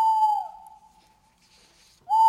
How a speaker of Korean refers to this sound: 오, 기분 나쁜 새소리만 들려왔죠.